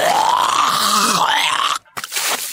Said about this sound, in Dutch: Grote. Grote. Dat mag krachtkots heten.